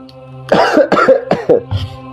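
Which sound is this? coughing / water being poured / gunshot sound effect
coughing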